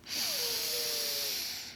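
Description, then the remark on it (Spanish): A single long, forceful deep breath drawn in during a guided breathing exercise, a steady airy hiss lasting nearly two seconds with a faint whistling tone through it. No one speaks. “Vamos a tomar una respiración profunda y con mucha fuerza.”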